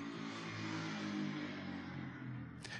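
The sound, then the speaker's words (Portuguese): A motorcycle rumbles past on a street, its engine drone steady throughout, with no voices, ending in a brief hiss of noise. “Espera a moto passar aqui.”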